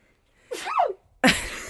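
A single loud sneeze: a brief voiced, wavering intake builds up, then breaks into a sharp, noisy burst at the end. No talking.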